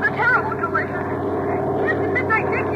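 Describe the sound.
A steady, droning airplane engine hums throughout with a dense, even roar, while muffled voices come and go over the top of it.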